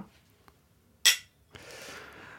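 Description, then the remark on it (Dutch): A single bright clink of glasses of Italian Chardonnay in a toast rings out, fading quickly, followed by a soft sustained rustling or pouring-like hiss. “Proost. Santé.”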